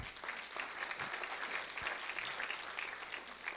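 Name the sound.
audience applauding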